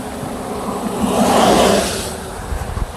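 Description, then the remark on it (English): A car passes by on a road, its broad tire-and-engine rush swelling to a peak midway, then fading away, with a few low bumps and wind rumble near the end. “oh, another car. Let's see if we can get a hitch.”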